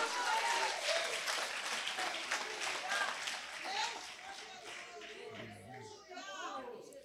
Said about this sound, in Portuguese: Se é verdade nisso, meus irmãos, levante as suas mãos e aplauda Jesus com alegria.